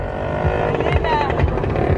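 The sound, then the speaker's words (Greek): A motorbike engine drones steadily outside, its low rumble and rising whine carrying through for a couple of seconds, moderately loud with some background murmur. “Πρέπει να ακουστεί τώρα αυτό το μηχανάκι σε εσάς.”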